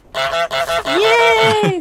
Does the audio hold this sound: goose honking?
yes